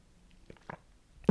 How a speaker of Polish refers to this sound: I teraz muszę łyknąć tu wody.